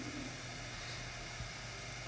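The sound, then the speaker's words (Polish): A small fan heater, just switched on, runs with a steady, even whoosh of airflow and a faint low hum underneath, first blowing cold air that then begins to warm up, holding constant throughout without any voices. “Tak to pracuje. Taki mały wentylatorek jakiś.”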